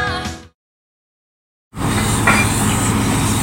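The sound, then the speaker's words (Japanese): After a short burst of another sound and a moment of silence, steam vents from the Sarulla geothermal power plant in Indonesia in a loud, steady roar that keeps going without a break. “インドネシアサルーラ地熱発電の蒸気の音その蒸気は水に帰り地中深く戻っていく”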